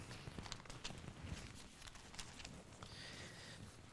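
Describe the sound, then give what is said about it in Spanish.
Soft rustling and crisp flicks of Bible pages turning, many overlapping in a church as the audience turns to John 3, a scattered papery patter with no one speaking. “Me gusta escuchar las hojas, así que si usted siempre se acuerda, nuestra iglesia usamos la Biblia, no mucho la tecnología.”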